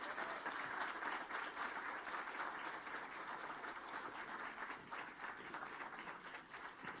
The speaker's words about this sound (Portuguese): Ele está ali. Dá um aplaudir, gente.